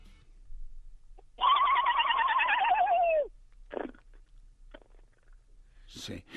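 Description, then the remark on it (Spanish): Over a radio phone call, a voice imitates a drugged horse's whinny in one long, loud, wavering cry, followed by a few short, softer vocal bursts meant as pigeon cooing as the horse thinks it is a pigeon, with brief noises at the very end. “Vamos a escuchar dos Caballo Drogado, Caballo Drogado, que se Caballo Drogado a ¿no? Exacto, que se, cree paloma al final, a ver.”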